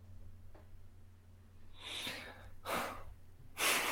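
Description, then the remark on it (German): Deep, heavy breaths, a long drawn inhale followed by two sharper, louder breath bursts, with a faint low hum underneath and no talking. “Tiefes Durchatmen. Man muss einmal schwer atmen erst, ja, erstmal Luft holen.”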